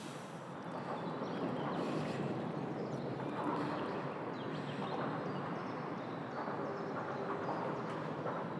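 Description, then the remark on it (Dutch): A continuous heavy rumble of cars passing overhead on a busy bridge, dense and steady with clattering, rolling texture, loud, heard from underneath the bridge. “We, zitten nu on, we staan nu onder de brug. En je ziet dus niet wat het geluid... Ver... Je hebt alleen dat ding boven je”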